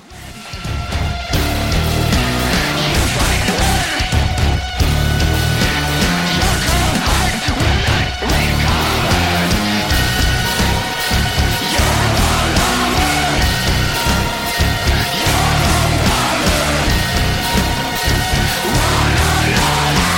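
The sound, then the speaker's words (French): A dense, loud blackjazz metal track with distorted guitars and busy drums, its rhythm lurching and shifting unpredictably. The music plays continuously at full intensity with no voices. “il s'agit d'un morceau qui est coupé en deux”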